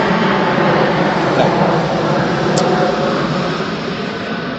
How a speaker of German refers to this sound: oh, da kommt das Flugzeug über uns.